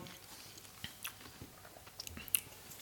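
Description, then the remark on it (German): Moist chewing with irregular crunchy bites and soft clicks of the mouth, ending in a quick swallow; no talking, just steady mastication. “Ich habe noch was in der Backe gefunden.”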